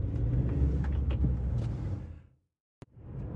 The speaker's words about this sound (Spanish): Perdonad, que vienen coches.